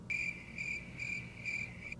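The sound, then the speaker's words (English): Crickets chirp steadily in a high, pulsing trill, four regular bursts over a faint low hum, with no voices present. “But when it comes to serving your man first, making him a plate, giving him the box anytime he wants or needs it, oh no, now now it's fucking crickets.”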